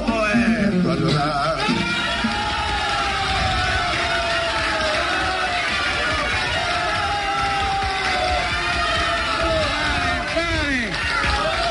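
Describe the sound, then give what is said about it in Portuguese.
A crowd applauds and cheers loudly and without a break, with many voices shouting and whooping over a dense, steady wash of clapping for the whole stretch. “No aplaudan, a ver si canta otra.”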